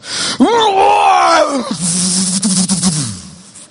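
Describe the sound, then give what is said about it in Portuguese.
A man imitates a heavy metal headbanger's growl, representing the headbanger he once was: a raspy, strained vocal roar that starts high and drops into a lower gritty rumble, lasting a few seconds with no words. “Eu era, na minha época, em São Paulo, headbanger. Você sabe o que é isso? E eu vou tentar representar o que eu era.”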